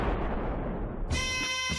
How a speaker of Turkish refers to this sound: Sarayın 5 yerinden günün 5 namaz zamanı yeni doğan şehzade için 7, sultan için de 3 gün top atılıyordu.